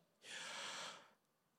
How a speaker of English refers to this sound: The two syllables of Yahweh match up with the intake and the outtake of a single breath, and when naturally voiced, the breathing in sounds like